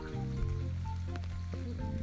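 Steady rain falls outside in Tokyo, Japan, a continuous soft hiss with a low rumbling hum underneath, even and unbroken for the whole stretch with no voices.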